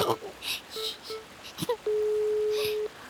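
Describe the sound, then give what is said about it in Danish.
A telephone ringback tone while a call is being placed: two short beeps followed by one long steady tone of about a second, clear, with faint background noise between. “så ringer vi til Romkugle og hører, om han er blevet helt vildt forskrækket”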